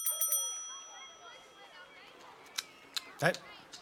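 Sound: small bell ringing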